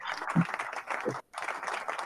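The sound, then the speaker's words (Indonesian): An audience claps in a dense, crackling wash of applause that briefly cuts out, then picks right back up, with faint voices mixed in. “Ajak penonton tutup tangan”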